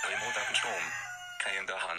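A rooster crowing sound effect, played from a nature-sounds menu: a loud, strained, harmonic call, breaking off briefly before a second burst of crowing follows.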